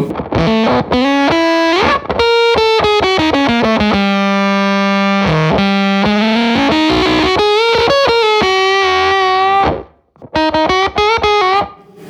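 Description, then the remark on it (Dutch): An electric guitar played through an octaver pedal, with thick, buzzy sustained notes and quick melodic runs, loud and steady, pausing briefly before a final flurry of notes. “Octavers, die doen het eigenlijk het meest in het midden van de hals.”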